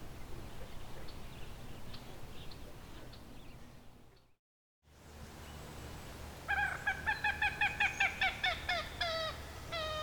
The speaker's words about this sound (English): So that's the common gallinule.